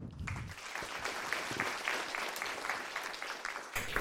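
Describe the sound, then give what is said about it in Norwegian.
An audience claps steadily for about four seconds to welcome the panelists of a book discussion, a dense crackle of many hands at an even, moderate loudness with no voices over it. “Gi en hjertelig varm applaus til hovedpersonene.”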